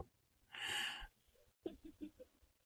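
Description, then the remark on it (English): A single yawn: a long, breathy intake of air, a brief pause, then a short voiced, wavering exhale, fairly quiet overall. “Oh no, I'm yawning.”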